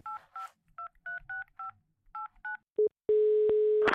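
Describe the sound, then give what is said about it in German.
A quick run of about ten electronic telephone keypad tones, dialed in a steady rhythm, followed by a short beep and then a sustained ringing tone, heard clearly with no one talking. “Und wenn du magst, rufen wir den kurz an.”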